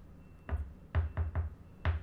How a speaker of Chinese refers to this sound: 那你要记得一开始要敲门哦。